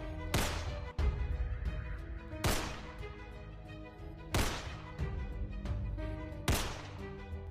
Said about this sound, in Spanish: Por impulso, tiré de sus manos el arma para intentar atacarlo. Pero mi intento fue detenido por el sonido de cuatro balazos al techo.